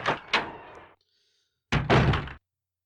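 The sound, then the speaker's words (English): A video game door-opening loading screen effect: a heavy thudding burst, a brief silence, then a second loud, rumbling clunk as the door moves. No voices. “Also, loading screen. Fuck yes. Yes, It just any door.”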